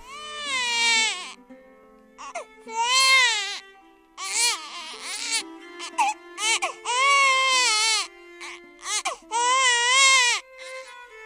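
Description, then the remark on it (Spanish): A baby cries loudly, wailing in a series of strained, pitch-bending bursts separated by short gasping pauses, with no other sounds around it. “Ahora las monjas clarisas que representaron hace siglos este auto le susurran al niño una nana que parece que está llorando.”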